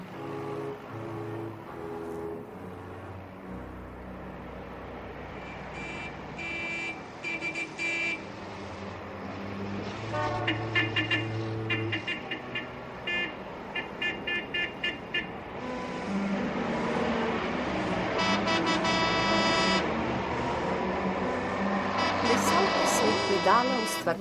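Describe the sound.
A steady column of cars speeds past on a busy street, some drivers briefly slowing down, a continuous roadway roar with car horns tooting now and then, and indistinct voices mixed into the traffic noise.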